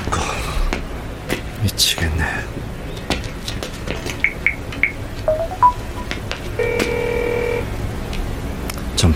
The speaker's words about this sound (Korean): 받아 받아 받으라고 전화를 받을 수 없어